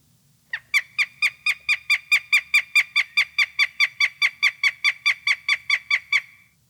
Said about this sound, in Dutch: Het geluid wat je de komende twee maanden steeds vaker in het bos gaat horen, van de meest spectaculaire jagende roofvogel van Nederland, de havik.